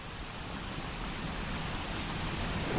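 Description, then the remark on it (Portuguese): A steady, continuous white noise hiss fills the whole stretch at an even, moderately loud level, with no voices or other sounds, like the static of a television with no signal. “Você sabe o que é um ruído branco? É um som como esse aqui, ó.”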